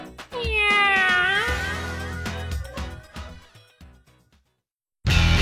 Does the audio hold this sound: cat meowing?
yes